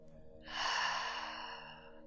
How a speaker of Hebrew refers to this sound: וזה דומה לסאונד גלי הים. לכן נשימת האוג'אי נקראת גם נשימת אוקיינוס. ואתם תחושו את ההתרחבות האוקיינית בתוככם.